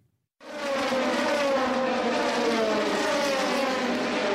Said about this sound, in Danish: Det er Le Mans. Det er det, det samme, ikke? Øh, det første 24-timers motorløb bliver afholdt i Le Mans i Frankrig.